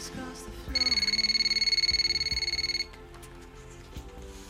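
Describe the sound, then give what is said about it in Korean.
A telephone rings for a phone call made on 8 March 2011, with a rapid, buzzing electronic trill of stacked high tones, lasting about two seconds before stopping, over a low background hum. “그리고 1968년 처음 만났던 그녀와 전 2011년 3월 8일 전화 통화를 하게 됐습니다.”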